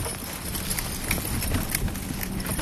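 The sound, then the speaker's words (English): Two draft horses, Dana and Dodge, clip-clop at a steady walking rhythm while pulling a sleigh through snowy woods at golden hour, hoofbeats evenly spaced over a constant low rumble of movement, with no one talking. “Dana and Dodge steadily clip clop, clip clop through the woods.”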